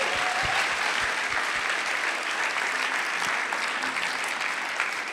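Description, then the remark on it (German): Steady audience applause, a dense wash of many hands clapping at a constant loud level for about five seconds, with no voices standing out. “ist nochmal dein Applaus.”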